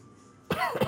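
After a brief quiet moment, a person coughs, a couple of quick, rough, throaty bursts in succession.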